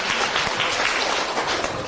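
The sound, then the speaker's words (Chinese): An audience claps steadily to encourage a participant, a dense, even patter of many hands that holds at a fairly loud level for the whole two seconds with no voices on top. “给他掌声鼓励一下，掌声鼓励一下哈。”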